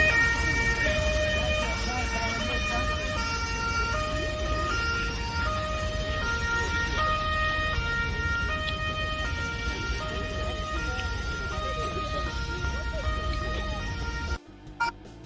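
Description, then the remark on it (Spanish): A motorcade with the Empoli team bus arrives at the stadium: two-tone escort sirens alternate steadily and loudly over a heavy rumble of engines and traffic, with a murmur of voices beneath, then cut off abruptly near the end. “es que justo está llegando el Empoli al Lali.”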